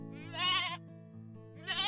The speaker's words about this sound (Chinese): 木屋背后忽然传来咩咩咩的羊叫声，马赛赶紧起身，边往屋子后边走，边说：“ 母羊要生羊羔子了。”